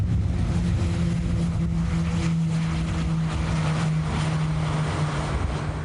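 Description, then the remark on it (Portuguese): A steady, loud engine drone of aerobatic airplanes, Embraer A-29 fighter aircraft, flying overhead under a cloudy sky, with a low humming tone and rushing noise that holds constant for several seconds, no voices present. “Templo nublado e mesmo assim os aviões estão no ar.”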